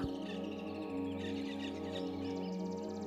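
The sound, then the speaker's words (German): Small colorful birds chirp and twitter at dawn in quick high bursts over a steady, sustained tonal background, the calls continuing throughout at moderate loudness with no one speaking. “Kleine bunte Vögelchen in allen Farben kriechen verschlafen aus ihren Nestern und begrüßen den neuen Tag.”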